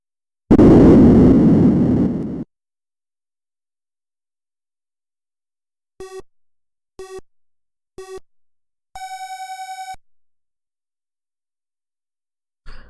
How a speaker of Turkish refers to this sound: İki ses ve sadece synthesizer'lı e, ses dalgaları kullanabiliyor olsaydınız bence araba yarışı oyunu. Onun bir örneğini açıyorum şimdi.